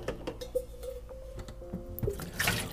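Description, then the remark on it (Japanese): Water being poured to make coffee from Ogawa Coffee's seasonal ground coffee, a steady trickling stream with a faint sustained hum, a few small clicks and knocks, and a brief louder splash toward the end. No one speaks. “コーヒー入れながらもうちょい喋りましょうか”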